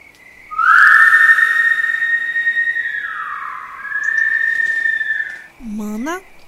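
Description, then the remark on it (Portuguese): A long, eerie, shrill whistle holds steady for several seconds, sags in pitch midway, then climbs back up, loud, before a brief lower rising tone ends it. “Tá ouvindo esse barulho? Parece o assovio da matinta.”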